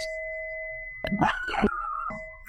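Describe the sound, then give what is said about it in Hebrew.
A female dog barks in a quick cluster of short, sharp barks at passers-by, with a steady high-pitched electronic tone humming in the background. “היא הסתובבה שם עם אח שלה, ומאז היא מפחדת אה, מהצל של עצמה, אימצנו אותה בשומר חומות, והיא נובחת על כל שבן שעובר בה.”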